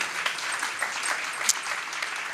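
A crowd claps steadily, a dense wash of many hands with scattered sharper claps standing out, moderately loud and continuous for a couple of seconds with no talking.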